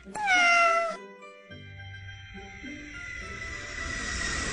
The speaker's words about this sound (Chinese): 飞机轰隆轰隆，小猫们喵喵的叫着。